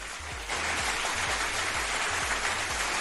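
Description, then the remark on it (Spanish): A burst of applause kicks in abruptly and holds steady, a dense wash of clapping with no voices, layered over a low, regular thumping pulse. “Aplausos, diría Memo Ríos.”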